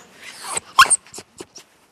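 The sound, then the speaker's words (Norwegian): A dog vocalizes in a quick series of short, whiny yips and grumbles, one sharper cry in the middle, then a few softer bursts trailing off. No one speaks. “Så nå forteller han, da, kan du si.”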